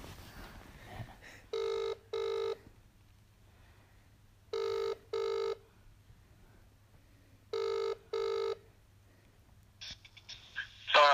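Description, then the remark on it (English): Telephone ringback tone on an outgoing call back to someone who hung up: three double-pulse rings at an even pace over a quiet humming line, then a burst of clicking noise as the call connects to voicemail. “Hang on, wait, we'll call him back again.”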